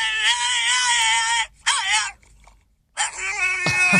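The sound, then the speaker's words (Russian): Harsh, strained screamed vocals from a metal song, loud, coming in two long howling bursts, then a brief silence before the screaming resumes over a low rumble. “Это металл. Это когда поют собаки.”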